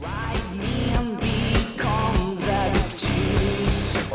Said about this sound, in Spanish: El era, era rock, era música con mucha garra. Garra y muchas cosas más. También tenía una parte más progresiva, más experimental, un rollo música de los 90,